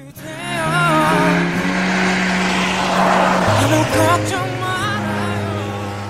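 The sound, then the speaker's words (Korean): A car engine revs and drives off with rising pitch and tire noise, loud, with faint music underneath, lasting several seconds with no talking; a drive-through quiz sound effect of a car passing with music playing from it. “자동차 소리 나기 전에 무슨 음악도 들렸는데 자 이게 이걸 너무 누구 노래지?”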